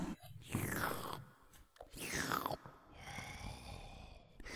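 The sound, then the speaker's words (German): Wet slurping and chewing noises from someone repeat in drawn-out bursts, with smacking mouth sounds and sucking gurgles rising and falling over a few seconds. “Das hört sich ja schrecklich an. Da schlürft ich, jemand.”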